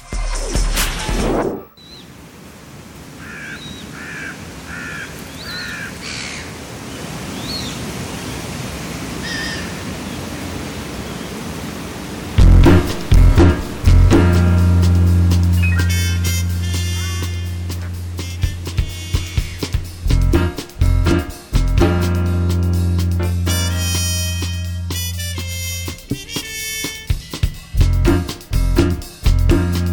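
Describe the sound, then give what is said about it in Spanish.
A brief instrumental music bridge on the radio program Momento Económico on Radio UNAM: a hissing, airy opening with faint chiming notes, then loud sustained low tones and bright tonal layers punctuated by rhythmic percussive hits, with no talking. “Bien, vamos a hacer un breve puente musical y regresaremos.”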